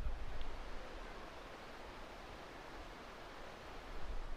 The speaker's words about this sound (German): Ich glaube, ich komme jetzt hier gleich an einem Fluss vorbei. Ich höre doch Wasser rauschen, oder? Oh ja, jetzt sehe ich hier einen ganz schönen kleinen Wasserfall.